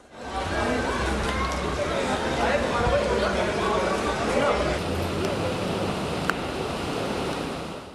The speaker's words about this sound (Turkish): Taşan Kıraç Deresi ise Pınar Mahallesi'ne esir aldı. Her bir sokak suyu şiddetle akan birer dere gibiydi.